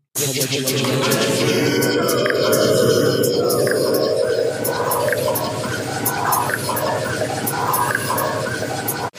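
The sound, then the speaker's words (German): A recording made with a sample pad app plays back for about nine seconds, loud and continuous, with garbled voice-like sounds over gurgling, watery textures and scattered high clicks. “Das ist ein Sample-Pad. Also ich habe meine App runtergeladen tatsächlich.”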